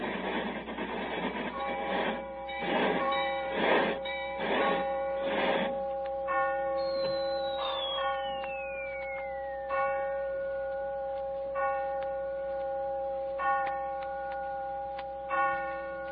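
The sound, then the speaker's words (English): Clocks strike the hour with resonant, ringing bell tones repeating every couple of seconds as a train enters a railway station in London. They follow a burst of rhythmic mechanical chugging and a falling whistle, and no one speaks. “As we enter the station, the clocks are striking.”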